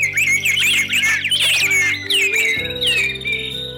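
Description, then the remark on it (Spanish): Several birds sing at once, a dense layer of bright chirps, trills and sweeping whistles over a steady low hum, continuous and fairly loud throughout. “Entonces los otros pájaros hicieron lo mismo y el aire se llenó de voces.”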